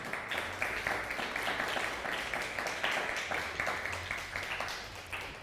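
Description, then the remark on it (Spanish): Audience applause for the Chilean community Raíces Hebreas of Angol, Chile, a steady dense patter of many hands clapping at moderate loudness, with irregular swells in intensity and no voices over it. “Así que fuerte aplauso a la comunidad chilena.”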